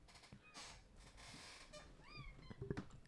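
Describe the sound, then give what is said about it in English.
A cat that has got loose gives a single short, fairly faint meow with a rising-then-falling pitch, surrounded by soft rustling noise and a couple of light thumps near the end. No one speaks. “cat cat got loose.”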